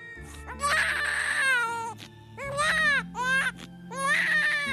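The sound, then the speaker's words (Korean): A newborn baby, just delivered by surgery, cries loudly in three wavering, high-pitched wails separated by short gasping pauses, over a low steady hum in the background. “아기가 먼저 수술로 꺼내지고 아리영의 맥박은 급격히 떨어지기 시작하죠”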